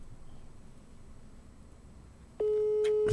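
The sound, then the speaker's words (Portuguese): A landline call tone suddenly sounds after a stretch of faint background hiss, a loud, steady electronic pitch that holds continuously to the end. “Vai, vai ligar no fixo? Eu tô né? ligando no fixo.”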